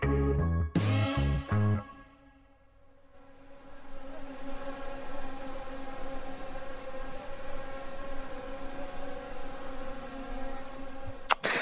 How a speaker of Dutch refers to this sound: Wat we hier horen zijn uh, muggen, wolkenmuggen. Ehm, je verwacht misschien dat het altijd heel koud is in de Poolcirkel, maar op de plek waar ik was, in het noordoosten van Siberië, is het in de zomer gewoon 30 graden.